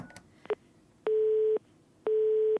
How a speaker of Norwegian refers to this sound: Jeg prøver å ringe de som er blitt filma, men mobilnumrene virker ikke lenger.